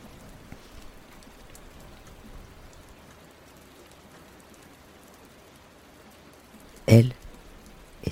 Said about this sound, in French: Je râle, mais rien n'y fait. Je voudrais la, la dominer et l'interdire, lui faire un pied de nez. Je déteste la pluie.